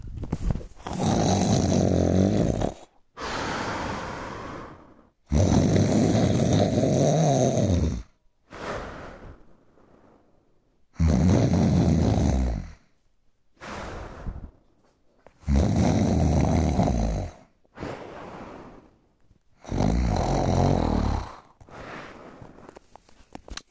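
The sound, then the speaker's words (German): Loud, exaggerated snoring imitating an abnormal snorer: five long rasping inhales in a steady rhythm, each followed by a softer, wheezy exhale, with no talking. “Der, der unnormal schnarcht.”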